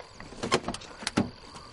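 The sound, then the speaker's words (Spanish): Car doors clunk shut as people get into a car, several sharp thuds and rattles in quick succession with brief pauses between them, and no one speaking. “Se montan en el coche.”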